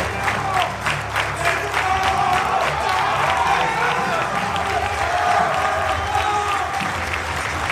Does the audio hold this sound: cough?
no